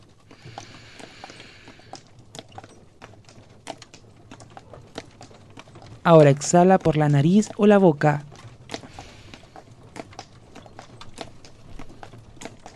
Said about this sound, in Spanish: En este lugar las calles son de piedra, donde el suave sonido de nuestros pasos se mezcla con los sonidos de una ciudad tranquila, con muchas cosas que suceden al mismo tiempo